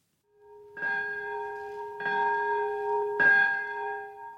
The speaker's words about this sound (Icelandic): Klukkan tvær mínútur yfir 11 í japansku borginni Nagasaki var bjöllum hringt við Nagasaki fríðarmiðstöðuna á þeim stað þar sem kjarnorku springju var varpað við borginna fyrir 78 árum.